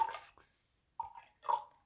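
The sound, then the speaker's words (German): Water is poured into a glass in a few short bursts, splashing with a hissy rush followed by gurgling, bubbly glugs, fairly quiet, with no talking. “Achtung, so viel geschüttet sich Wasser rein. ASMR. Platsch, platsch.”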